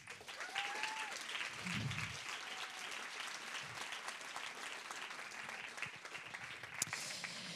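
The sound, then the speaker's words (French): An audience at the first edition of a cycling award event breaks into sustained applause for the winning projects, a dense steady wash of many hands clapping at even loudness throughout, with a few faint whistles and cheers rising above it. “Je pense qu'on peut une dernière fois tous les applaudir.”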